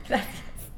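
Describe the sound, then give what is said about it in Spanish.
A single quick sneeze bursts out, a sharp breathy blast that fades almost at once into quiet room tone. “Perdóname. Salud.”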